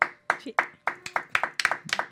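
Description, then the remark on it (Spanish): Sharp hand claps ring out in a quick, slightly uneven rhythm, about ten in two seconds, with voices mingling beneath them, as people applaud a musician. “Aplauso al para el toro negro que se sienta, señor.”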